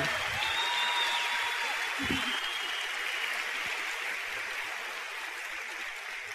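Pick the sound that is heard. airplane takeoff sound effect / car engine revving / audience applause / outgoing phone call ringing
audience applause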